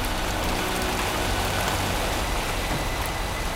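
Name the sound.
steady rain falling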